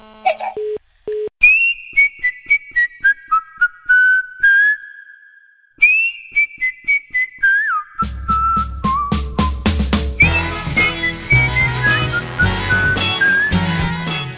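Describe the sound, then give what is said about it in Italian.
A clear whistled melody descends in two short phrases, then full instrumental music with drums and bass joins in halfway, continuing the tune loudly with no talking; it is a show's opening theme tune. “entriamo anche oggi così un po' fischiettando alla chetichella.”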